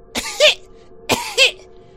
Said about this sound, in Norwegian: Idet du nærmer deg stolen, så hører du en hosting.